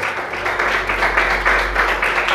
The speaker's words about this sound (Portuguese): E as palmas louvem ao Senhor nesta noite.